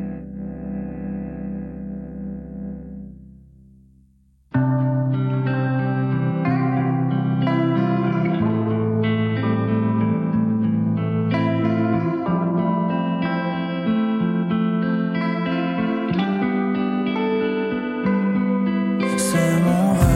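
An instrumental song intro with no vocals: a soft, muffled opening gives way at about four seconds to full, dense band sound with effects-laden guitars, steady bass and drums, loud throughout.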